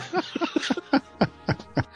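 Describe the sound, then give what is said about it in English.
A grasshopper-chirping sound effect: a rapid run of short, evenly spaced chirps, about eight in two seconds, sounding like a voice mimicking grasshoppers, fairly loud with brief gaps between each chirp. “the grasshoppers chirping.”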